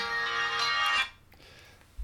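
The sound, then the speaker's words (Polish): A brief electronic SMS notification tone on a second phone, with bright, bell-like harmonics, rings for about a second, then cuts off, leaving a faint low hum and a soft thump at the end. “Mam nadzieję, że o dotrze na drugi telefon.”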